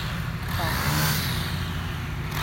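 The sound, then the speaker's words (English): A weed whacker drones steadily outdoors at moderate volume, a continuous buzzing small-engine hum with no pauses. “The weed whacker.”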